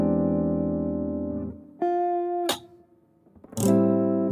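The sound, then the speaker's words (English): An E altered dominant chord (E7 sharp 9 sharp 5) on electric guitar, voiced open E, seventh fret on the A string, sixth on D, fifth on G, third on B and high E, rings out, fades into a couple of sustained notes, then is struck again with a bright, crisp strum that sustains to the end. “And that's a that's a E altered dominant sound.”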